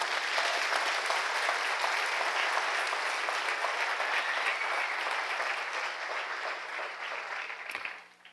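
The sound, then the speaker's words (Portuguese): An audience claps for everyone who did a short exercise, steady, dense, sustained applause that holds an even level for about eight seconds before quickly tapering off at the end. “O que, que eu aprendi com, com esse exercício, esse pequeno exercício que vocês fizeram, que a grande maioria fez, e uma salva de palmas para todo mundo que fez.”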